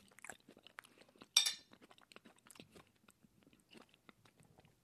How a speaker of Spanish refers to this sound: Y como siempre, aquí estoy tragando.